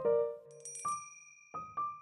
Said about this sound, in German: Endlich klingelte der vorsinnflutliche Apparat, einer mit Wählscheibe und Riesenhörer.